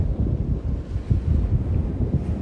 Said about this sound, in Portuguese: Você vai seguir e escuta o barulho das ondas aqui no fundo, o mar. Vamos conectar com a natureza,